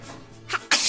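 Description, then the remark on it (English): A quick sneeze in a hotel room at the Sequoia Lodge, Disneyland Paris: a short sharp intake followed by a loud, bursting exhale, with otherwise quiet surroundings. “Bless you.”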